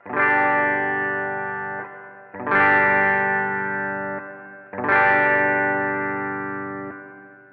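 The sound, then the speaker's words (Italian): An electric guitar strums three sustained chords about two seconds apart through a reverb effect, each ringing out with a soft reverberant tail before the next strum. No voices, just the guitar, fairly loud. “Ora invece aggiungiamo un po' di riverbero.”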